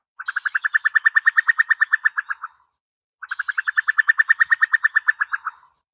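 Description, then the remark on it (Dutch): A bird gives two long bubbling calls, each a fast, even series of about twenty liquid notes lasting a couple of seconds, separated by a short pause. Clear, with no other sounds. “Dit is echt een, een, een bubbelend, hè, compleet anders dan een koekoekje.”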